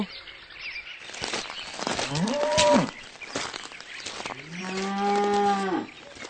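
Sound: cow mooing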